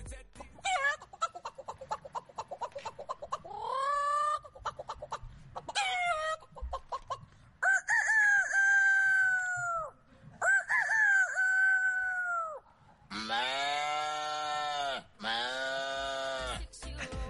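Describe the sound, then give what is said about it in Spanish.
A man's voice imitates farm animals in a quick series of loud calls, including several drawn-out rooster crows, followed by lower, harsher animal-like cries near the end. “Eh, a ver, yo es que ya no me fío de ti, pero a mí esto me suena a granja, pero no sé por qué me da que también va a tener truco.”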